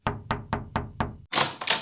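Five firm, evenly spaced knocks on a wooden front door, followed by two harsher, broader thumps, fairly loud with no voices present; a man who has come to inseminate a cow knocks at a farmhouse.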